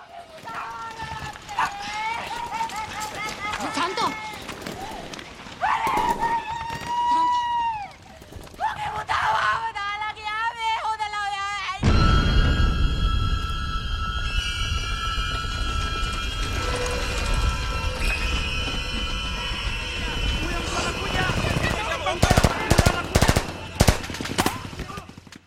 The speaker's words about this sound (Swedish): Uh, som är uh, ett, ett, ett, orkesterverk som för 52 stråkar,